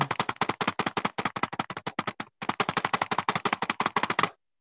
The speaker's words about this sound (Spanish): ¿Quieres que te eh, haga una intro de tambores y entonces dices la nota? Claro, sí, sí, yo creo que sí. Sí, para que se, se escuche mejor, ¿no?